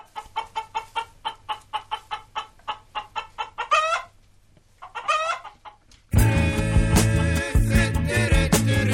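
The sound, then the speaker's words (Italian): Laying hens cluck in a quick, steady run of short clucks, then let out two louder drawn-out squawks before loud music-like sound abruptly takes over the final seconds. “L'Italia di nuovo sotto accusa in Europa perché non osserva le norme, non nuove ma decise ben 12 anni fa, su come vengono allevate le galline ovaiole.”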